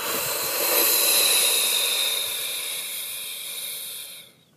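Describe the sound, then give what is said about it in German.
During a breathing exercise, after breathing in through the nose, a long, forceful breath is pushed out through the mouth, a steady airy hiss lasting about four seconds before trailing off, with no talking. “Und zwar durch die Nase atmet man nur noch ein und durch den Mund.”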